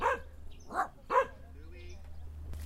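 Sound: small dogs barking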